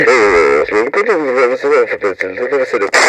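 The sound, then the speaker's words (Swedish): A short, radio-style intro jingle for the new news segment "Nyheter från Softlocket", with loud, continuous melodic vocals with sliding, wavering pitch, running for a few seconds and ending with a brief bright burst. “Eh, som jag misstänker att ni hörde i gingen så är det här eh, det nya inslaget.”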